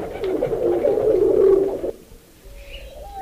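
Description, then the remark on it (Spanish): A single long, low owl hoot rises and holds for about two seconds, then breaks off into near silence with faint background noise. “y entonces el búho le hace.”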